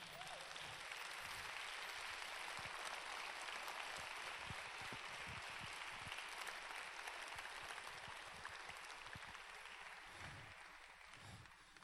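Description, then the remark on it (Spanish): An audience claps steadily for about twelve seconds in a loud round of applause to the King, God, a dense, sustained wash of many hands with no pauses, holding a fairly even loudness before easing slightly at the end. “Yo le daría un fuerte aplauso al rey.”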